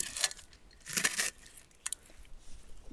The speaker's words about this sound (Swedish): fraset från den perfekta rårakan. Mm. Do try this at home, folks.